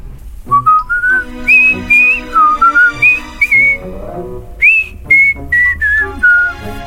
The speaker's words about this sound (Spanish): Se escuchó a lo lejos un silbido armonioso que causó en mí una sensación extraña me hizo vibrar.